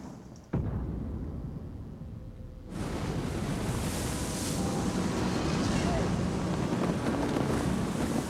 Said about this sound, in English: A storm a coming.